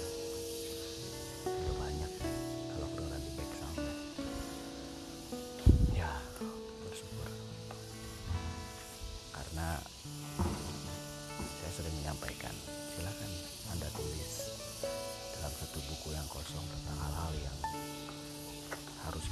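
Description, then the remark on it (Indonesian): Cicadas buzz in a steady, high-pitched droning hiss that runs unbroken through the whole stretch, moderately loud, with lower tonal sounds layered underneath. “suara tongerek kapan terakhir dengar”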